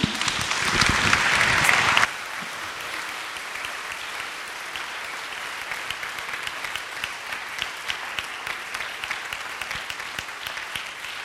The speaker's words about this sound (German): Ich bitte um einen warmen Applaus für die drei.